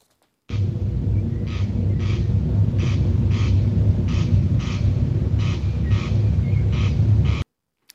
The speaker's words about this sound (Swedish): det här är alltså en, en, en kornknarr